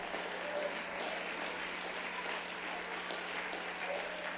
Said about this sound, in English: Let's stand to our feet this morning and clap our hands again unto Him. Come on, let's shout unto Him with a voice of triumph.